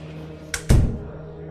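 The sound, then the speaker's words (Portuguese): A door swings shut and is locked: a quick click, then a heavy, booming thud that fades quickly over a low steady background hum. “Queria entregá-lo pessoalmente ao chefe, em parte para poder perguntar a ele sobre o que aconteceu no dia anterior, mas em resposta, ele simplesmente me pediu para fechar e trancar a porta atrás de mim.”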